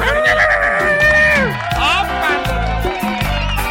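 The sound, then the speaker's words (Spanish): A person loudly imitates a horse's whinny, a shaky, wavering vocal neigh that rises high and then drops in pitch and breaks up over a few seconds. “Y cuando me mira venir, el caballo me hace”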